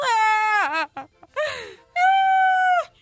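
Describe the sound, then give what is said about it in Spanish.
A voice imitates a crying child with loud, drawn-out wailing sobs, three bursts with short breaks, the last a long sustained wail, alone without other speech. “uno le dice al otro, estaba en la banqueta un niño, un niño moquito así llorando.”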